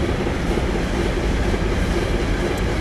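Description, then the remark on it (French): A train rumbles past close by, on rails just behind the town hall at the French-German border, a steady, loud roar of wheels on rails with faint rhythmic clatter, filling the whole stretch without pause and with no voices. “Je suis assis juste à côté de la mairie et les rails passent juste derrière.”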